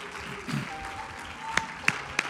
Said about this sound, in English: Clap your hands to the Lord and let's praise Him together.